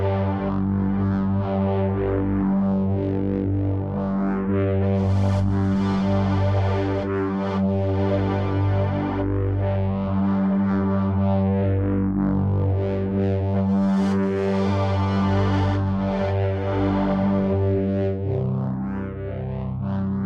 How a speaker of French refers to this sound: pour créer le son du drone, c'est en fait plusieurs différentes couches euh, qui sont mises l'une par-dessus l'autre.